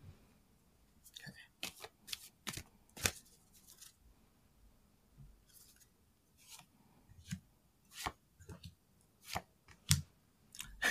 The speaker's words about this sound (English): Okay. I'll pull three cards.